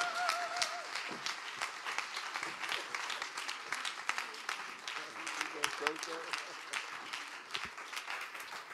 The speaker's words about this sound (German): Und ähm, lasst uns ihnen einfach einen tosenden Applaus geben. Aufstehen auf die Stühle, vorschießen, was gut ist.